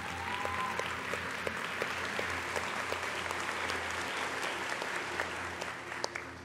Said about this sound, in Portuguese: Enquanto isso, igreja, como uma manifestação de carinho e honra a esses irmãos, dê uma salva de palmas para recebê-los.